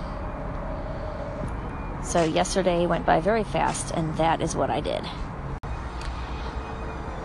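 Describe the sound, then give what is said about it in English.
A steady, low rumble of road traffic going by, heard from a back patio in a yard, runs through the whole recording, continuing beneath a short stretch of someone speaking outdoors and carrying on after the talking stops. “And in the background, there is this rumbling of traffic going by.”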